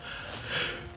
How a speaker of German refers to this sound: oh, sorry. Gesundheit.